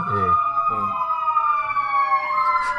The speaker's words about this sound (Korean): 근처가 소방서가 있어갖고 아 아주 잊을만하면 한 번씩 이래요. 잊을만하면 어디서 사건 터져서 출동하고 있어요. 잠시만 기다리세요. 지금 소방차가 또 지나가는 것 같은데 또 예, 일단 지나가고 그냥 예, 지나가고